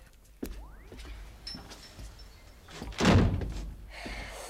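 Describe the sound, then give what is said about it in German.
A door is pushed shut, with a sharp click early on followed a few seconds later by a heavier, rattling thud as it closes. Nobody speaks; only faint room noise remains. “Mach doch mal die Tür wieder zu, ja?”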